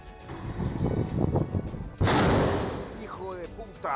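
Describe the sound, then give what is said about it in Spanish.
A single loud explosion bursts in halfway through and rumbles as it fades, with indistinct voices and commotion before and after the blast, in Ecuador after the declaration of an internal armed conflict against criminal groups. “Tras la liberación de Fito, líder de uno de los grupos criminales más peligrosos del país, las explosiones se multiplican”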